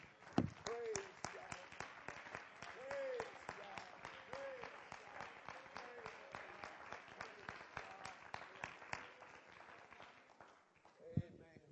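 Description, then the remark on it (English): An audience claps steadily for about ten seconds in praise to the Lord, a dense wash of many hands, with a few voices calling out over the clapping before it fades. “Let's clap our hands to the Lord and let's give Him praise one more time.”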